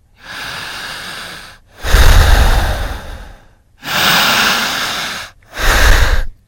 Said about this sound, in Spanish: ¿alguna vez escuchó o le ha puesto atención al sonido que dicen los que se están queriendo hipnotizar. Dije, ¿cómo? Sí, el sonido de la respiración. ¿Qué dice?